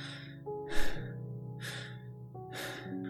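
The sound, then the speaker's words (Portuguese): Heavy panting breaths of an exhausted, sore climber with wounded hands ascending a slope repeat in a steady rhythm, three loud gasping bursts over a low sustained musical drone. “Está de rastros, dorido, cansado, com feridas nas mãos, a respiração está ofegante.”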